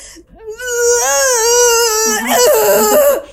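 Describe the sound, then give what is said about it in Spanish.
A person vocally imitates the strangled sound that came out when they tried to scream in panic and could not: a thin, high, quavering whimper held for a few seconds, breaking into choked sobbing sounds near the end, fairly loud. “dio tanto pánico o sea que literal traté de gritar y no pude gritar. El, lo, sonido que me salió fue...”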